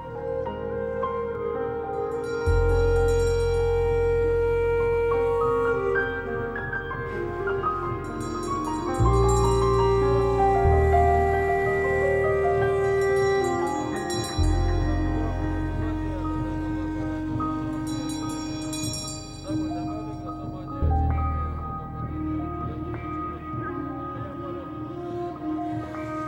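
Slow, meditative instrumental music with deep sustained drones and long held tones, soft melodic lines drifting above, steady and calm at moderate volume with no voices.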